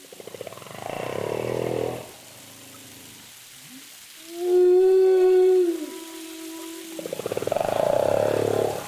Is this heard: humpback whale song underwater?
yes